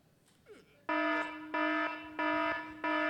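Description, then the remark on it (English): A loud, harsh electronic alarm clock blares in four repeated bursts, each lasting about half a second with short gaps, a grating buzzer-like tone that goes on insistently. Faint background noise precedes it. “You know, the alarms that it's like you feel like you're getting hit by a truck when they go off.”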